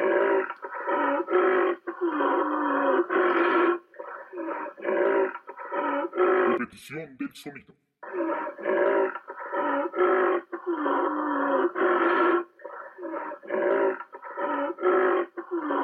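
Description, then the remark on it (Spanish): A rhinoceros vocalizes in a long series of loud, rumbling grunts and bellows, repeated in rhythmic bursts with a brief pause midway where a voice speaks. “Y la respuesta es... ¡El rinoceronte! Claro que sí, es del rinoceronte.”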